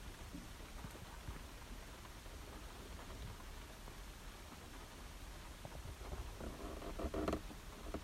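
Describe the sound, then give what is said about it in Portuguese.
Steady rain drums on a car roof, a dense, continuous patter filling the space at an even level, with a few slightly louder splashes near the end and no one talking. “Hum, yeah, vamos ficar aqui a ouvir só um bocadinho a chuva a cair em cima do meu tejadilho.”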